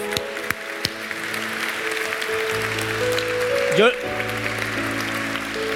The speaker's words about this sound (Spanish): Qué impresionante. Dale un aplauso a Dios.